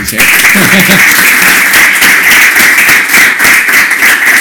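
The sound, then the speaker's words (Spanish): Steady, dense applause from an audience, a loud wash of many overlapping claps that holds at an even level for several seconds, with a brief voice mixed in near the start. “Eh, un aplauso, por favor, por”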